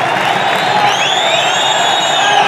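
A football stadium crowd applauding and cheering as the player Cubillas is about to come back onto the pitch, in a steady, dense roar, with a few higher whistles or whoops gliding over the top of the continuous noise.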